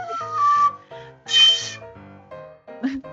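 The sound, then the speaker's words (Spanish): A small flute, a tube, is blown in several short, shrill toots of varying pitch, each burst a breathy, reedy tone with brief gaps between them. No one speaks. “Es un pitico ahí”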